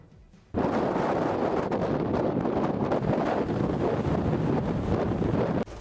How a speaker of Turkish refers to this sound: Bakın dışarıda rüzgarlı bir hava bizi bekliyor.